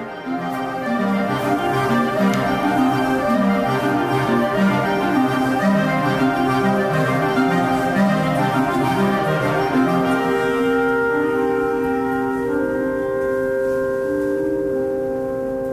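A wind ensemble of clarinets plays a bright, brisk fanfare: steady layered reed tones, close and fairly loud, settling into longer held chords near the end. No one speaks.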